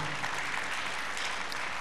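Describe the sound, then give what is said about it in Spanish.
A crowd of people clapping together for the Lord in steady, sustained applause, a dense wash of many hands at moderate volume. “¿Alguien puede aplaudir a su Señor?”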